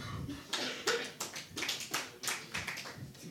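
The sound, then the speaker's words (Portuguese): A single audience member clapping hands in an irregular run of sharp, bright claps, about a dozen over a few seconds, with no talking over them. “Nunca viste, não foste tu que bateste palmas, foi o teu amigo ao lado.”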